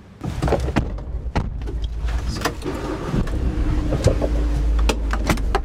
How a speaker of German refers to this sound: Wir steigen wieder ins Auto.